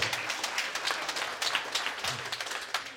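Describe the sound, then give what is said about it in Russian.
Steady applause from a crowd, many hands clapping in a dense, continuous patter at moderate volume, with faint voices underneath. “Аплодисменты.”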